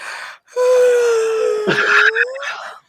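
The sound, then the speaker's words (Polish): A voice imitates a big, drawn-out yawn: a breathy intake, then a long, loud moaning tone that sags slightly in pitch and ends in an airy exhale, alone. “jak kiedyś zostało moje potężne ziewnięcie uchwycone na antenie ponieważ e, realizator włączył troszkę za, za wcześnie, więc na antenie było takie”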